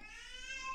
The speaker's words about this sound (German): Jetzt hört man, glaube ich, gerade im Hintergrund auch noch jemanden durch die Gegend schreien. Wir haben natürlich wieder alle Kinder zu Hause.